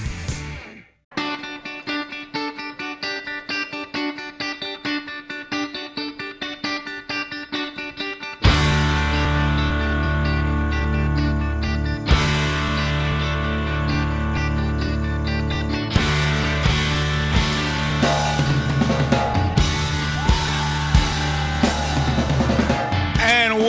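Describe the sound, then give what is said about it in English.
An instrumental music track plays on its own during a break in a talk program, opening with a bright, sustained melodic layer before a heavy bass and fuller arrangement kick in and the sections shift, loud and steady throughout. “Couldn't stop listening to the music, man. I like this. I like this one.”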